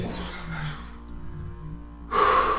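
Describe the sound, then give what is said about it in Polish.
After about two seconds of near-quiet low background, a sharp gasping intake of breath bursts in loudly and carries to the end. No one speaks. “biorę oddech, no, patrzę zupełnie gdzie indziej, żeby tego nie widzieć i zaczyna ze mnie schodzić powoli.”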